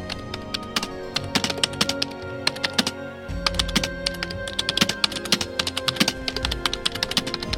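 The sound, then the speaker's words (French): Rapid, continuous clicking of keys on a computer keyboard as someone types at full speed to get past computer security, fairly loud, with a brief pause midway, over a low steady background hum. “Pianoter à toute vitesse sur un clavier afin de déjouer toutes les sécurités informatiques existantes.”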